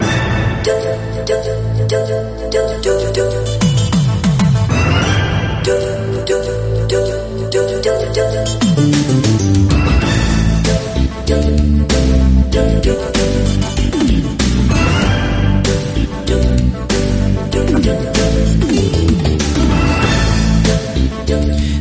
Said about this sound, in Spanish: Ya sonando de fondo el tema principal de este Snouts y la verdad que con los primeros compases ya te das cuenta que estás delante de una gran superproducción.